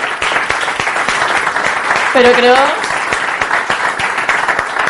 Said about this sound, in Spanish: pido un aplauso para la organización porque de normal siempre se les da al final.